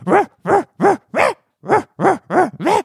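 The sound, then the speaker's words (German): A dog-bark sound effect used in radio plays: a dog barks loudly, eight sharp barks in two quick runs of four separated by a short pause, with no one talking. “Hundegebell in den Hörspielen.”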